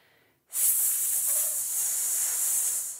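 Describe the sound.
A person produces a long, steady hissed "sss" sound as a singing breath-support exercise, high-pitched and sustained at an even loudness for about two and a half seconds before tapering off.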